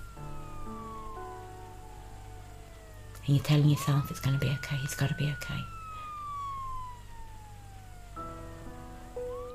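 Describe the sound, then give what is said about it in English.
An emergency vehicle siren wails in long, slow rising and falling sweeps, steady and fairly prominent, while cars are not moving out of the way; a person speaks over it partway through. “The siren's going and cars aren't moving out the way.”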